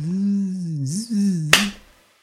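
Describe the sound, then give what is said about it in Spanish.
A bee that has flown into a room buzzes steadily, wavering in pitch, then a single sharp, loud swat kills it, and the buzzing dies away moments later into silence. “Acabo de matar la abeja.”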